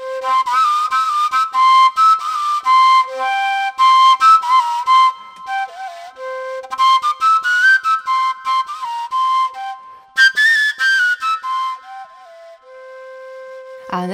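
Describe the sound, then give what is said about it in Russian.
A Karelian willow flute (paju pille), a Finnish instrument with no finger holes that is played with one finger of one hand, plays a breathy, whistling melody that jumps between high overtone pitches in quick, lilting phrases, with brief pauses between runs and no voices. “Паю — это ива, пилле дудка, на которой играют одним пальцем одной руки.”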